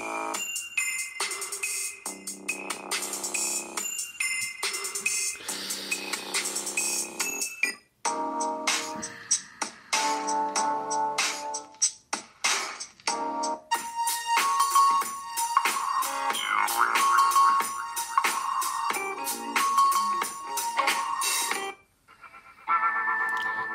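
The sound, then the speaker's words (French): A smartphone loudspeaker, its sound coming out of a small notch, blasts music at full volume, thin and tinny with almost no bass, bright and slightly harsh, playing steadily with a short dropout near the end and no talking. “Non, je fais écouter vite fait le son, là, ça a fond, hein.”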